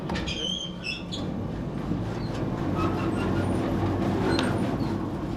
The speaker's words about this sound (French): Ça, c'est le nettoyeur séparateur.